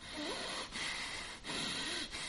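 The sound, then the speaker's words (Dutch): A person snorts hard through the nose three times in a row, short forceful bursts of air, demonstrating an angry huffing with no talking in between. “Dan, dan, dan, dan ben je zo woedend dat je door je neus gaat ademen en dan, dan snuif je lucht in en een snuif je het ook weer uit.”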